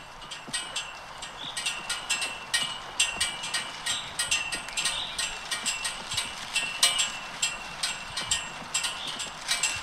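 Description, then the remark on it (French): Ukrainian flags over graves in a cemetery flap in the wind during the war: a steady run of quick, crisp snapping taps in a loose rhythm over a soft, constant wind hiss, with no voices. “C'est le drapeau qui flotte au vent, des drapeaux euh, dans le cimetière à c'est pas une habitude de mettre un drapeau ukrainien euh, au-dessus de chaque mort, mais c'est dans le contexte euh, justement de la guerre.”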